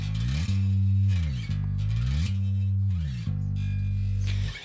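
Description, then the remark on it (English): A low guitar plays sustained notes that glide smoothly in pitch between positions, sliding up and down along one string to a top note in a steady repeating phrase, clear with no talking. “because if you're having to slide all the way up to here on the same string there's more of a likelihood that you might miss this top note trying to get way up here”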